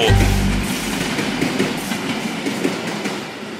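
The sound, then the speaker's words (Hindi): A superfast train crosses a bridge, loud and steady, its wheels clattering in a quick, continuous clickety-clack over a deep low roar, with no voices. “जैसे कोई super fast rail bridge से गुजर रही हो”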